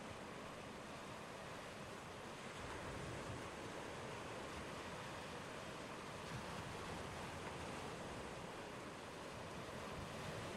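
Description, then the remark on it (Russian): Steady ocean surf washes in continuously, a broad, even roar of breaking waves with a soft windy hiss, with no voices present. “Вы погружаетесь все глубже в расслабленное состояние, чувствуя, как поток океана приносит вам исцеление и безмятежность.”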